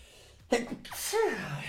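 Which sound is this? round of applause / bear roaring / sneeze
sneeze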